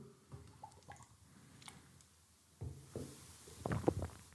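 Close-up wet gulping of beer, a few squishy swallows that build to a louder cluster near the end, with small liquid clicks and drips in between and no talking.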